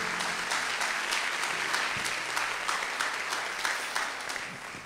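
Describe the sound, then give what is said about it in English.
A church audience bursts into sustained applause as a hand clap of praise for Jesus, many hands clapping in a dense, crackling wash that holds steady before thinning slightly toward the end. “Can we give Jesus a hand clap of praise in this house today?”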